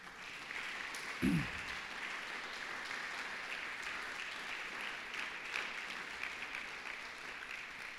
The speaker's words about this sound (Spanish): Le das un aplauso al Señor por eso.